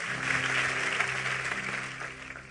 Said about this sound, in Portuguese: Aplauda ele e vamos embora.